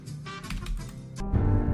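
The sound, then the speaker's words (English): Several quick computer keyboard key presses, the W and S keys scrolling up and down a main menu, click in an uneven rhythm over a low, steady background hum, moderately loud, with no one speaking. “You know, like if I do W and S, it scrolls up and down the main menu.”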